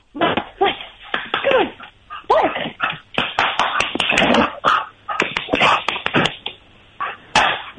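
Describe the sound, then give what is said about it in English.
A dog barks and yelps excitedly in a rapid, irregular burst of loud calls, some rising into whiny, howl-like tones, with brief pauses between clusters, set off by someone saying "ow". “It helps if you say ow. Yeah, that dog.”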